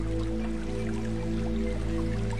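A distant stream trickles and burbles steadily, soft watery patter running continuously beneath a low sustained hum of tones, with no voices.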